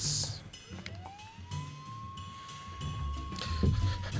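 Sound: ambulance siren arriving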